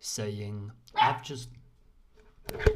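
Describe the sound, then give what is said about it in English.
A person speaks briefly, then after a pause the speaker's puppy, Gunner, gives a quick, sharp bark or two from somewhere in the background, fairly loud against the quiet. “And that is my dog barking in the background.”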